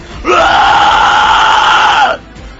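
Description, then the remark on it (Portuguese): A woman screams in someone's face: one loud, sustained, piercing scream lasting nearly two seconds, with a steady pitch that dips slightly at the end before cutting off. “Ela te joga de contra ao altar quando você cai, ela grita na sua cara.”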